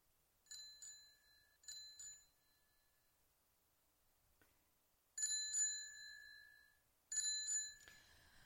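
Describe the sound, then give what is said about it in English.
A bicycle-style bell is rung to award points in a quiz game, in four quick bursts of double dings, two softer ones early on and two louder, brighter ones later, each ringing briefly before fading, with no talking. “So I get four okay. bells?”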